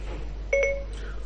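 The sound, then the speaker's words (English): A short, bright electronic Siri activation chime from an iPhone, triggered by holding the home button: two quick overlapping tones rising out of quiet hiss, clear, fading within a fraction of a second. No one speaks. “So I've actually hold number 8 in until I hear Siri and then talk.”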